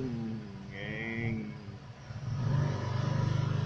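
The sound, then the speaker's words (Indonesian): A voice imitates a motorcycle engine revving, with buzzy, rising and falling tones that end in a louder, steady pulsing drone, fairly loud. “suara motor ngeng ngeng ngeng”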